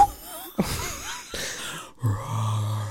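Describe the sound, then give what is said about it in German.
A person imitates a brown bear, making a few rough, breathy growls, ending in a deeper, sustained rumbling growl. “Wie macht der Braunbär?”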